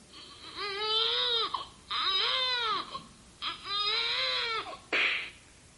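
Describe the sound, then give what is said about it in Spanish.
A baby cries loudly in three long, wailing bursts with short gasping pauses between them, followed by a brief breathy whimper at the end. “Primero creo que no falta el bebé que por ahí hace sus gracias.”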